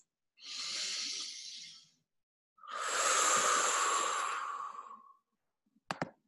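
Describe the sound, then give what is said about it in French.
During a breathing exercise held over Zoom, a long, airy inhale through the nose is followed by a longer, forceful breath pushed out through the mouth, then a couple of quick faint clicks; no one speaks. “Et on va prendre dans cette posture une grande inspire par le nez, on expire fort par la bouche.”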